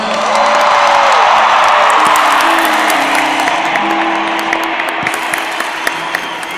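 At a band's 30th-anniversary tour concert, a crowd applauds a band member with dense, steady clapping, mixed with scattered whoops and cheers. The applause stays loud throughout, then eases slightly toward the end.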